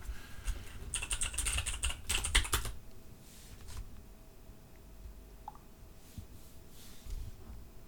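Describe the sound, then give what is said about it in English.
A rapid burst of computer keyboard typing, crisp, with clustered clicks for a couple of seconds before it fades to a few scattered taps and a quiet hum. “I just was trying to avoid uh, typing so oh, much because.”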